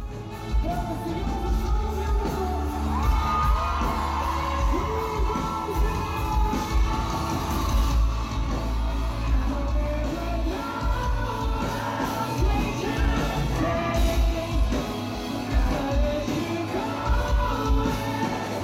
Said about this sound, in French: Les cris redoublent, le cœur de la foule s'amplifie sur le refrain.